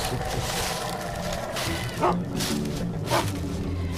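Two short dog barks, about a second apart, cut through a steady, hissing outdoor ambience in a forest. The barks are muffled and not much louder than the background.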